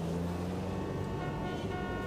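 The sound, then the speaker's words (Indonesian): Steady traffic noise fills the scene, with sustained horn tones sounding over a dense rumble of engines, like cars honking while stuck in a jam. No one speaks. “Aduh jalanan macet banget lagi.”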